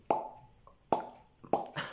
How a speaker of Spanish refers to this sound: el día de hoy no van a escuchar una caguama destapándose porque el día de hoy solamente traemos latas. Pero suena igual, mire.